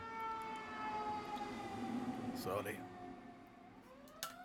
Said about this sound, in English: Oh my ambulance is getting away.